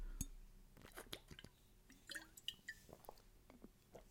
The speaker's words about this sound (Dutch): Dus ik moest even een slokje water drinken.